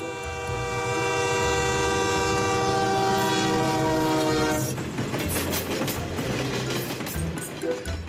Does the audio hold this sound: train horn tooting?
yes